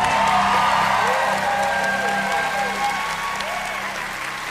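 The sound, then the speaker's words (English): A woman's high-pitched squeal of excitement at a correct quiz answer rises within loud, steady applause and crowd cheering that fill the whole few seconds, with scattered whoops and voices mixed in. “Whenever she thinks you have the right answer, she goes does one of those high-pitched squeals.”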